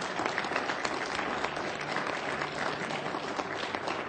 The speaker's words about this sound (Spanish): ¿Cuántos dan un aplauso al Señor? Fuerte, se fuerte al Señor.